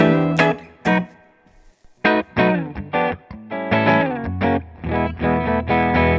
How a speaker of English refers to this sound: All right, so we will uh, go with our dry signal first, as always. So there's our uh, there's our bridge, there's our neck.